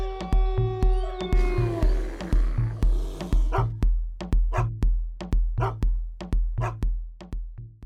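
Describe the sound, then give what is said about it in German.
A short musical jingle with a bouncy bass beat, built from repeated dog barks in quick rhythmic succession, with drawn-out meow-like tones near the start. “Wuff, wuff.”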